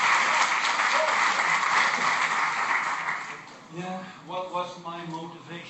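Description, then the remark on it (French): Audience applause, given as a greeting, fills the first few seconds as a dense, steady wash of clapping, then fades out as a single voice begins speaking over the tail end. “La salutation aussi en romanie, c'est qu'il faut applaudir l'audience.”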